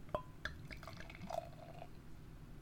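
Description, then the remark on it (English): Beer from a bottle poured into a glass, with a few sharp splashy drips at the start giving way to a soft, steady gurgling stream. Fairly quiet, with no talking. “Right, I'm going to pour it as usual.”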